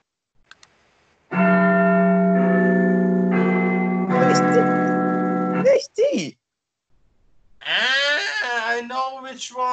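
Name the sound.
church bells ringing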